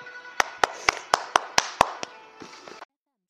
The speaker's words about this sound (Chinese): 掌声有请。